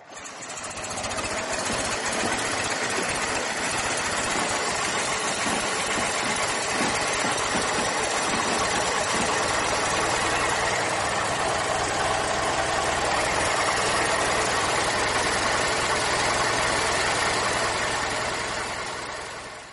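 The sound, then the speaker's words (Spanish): An old Forte car engine runs steadily, a loud, rattling chug with a rapid mechanical knock throughout, fading in and out at the edges and no voices. “Y para ponernos en situación y ambientarnos en cómo debía ser desplazarse en uno de ellos, queremos que escuchéis el sonido de su motor.”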